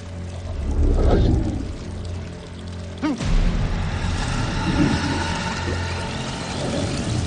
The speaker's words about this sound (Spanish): El hombre de nuevo se sumerge en la bañera y abre el grifo.